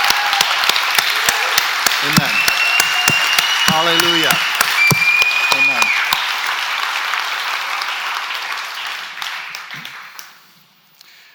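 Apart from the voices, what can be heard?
audience hand clapping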